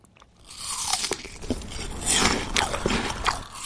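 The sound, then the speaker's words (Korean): Someone bites into a crisp apple and chews, with a series of sharp, bright crunches spread irregularly across a few seconds, fairly loud with no talking. “사과 먹는 소리.”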